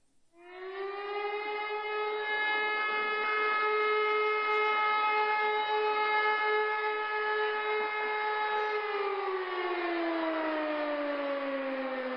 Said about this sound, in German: Es ist die Feuerwehr. Danke. Die Feuerwehr rückt aus.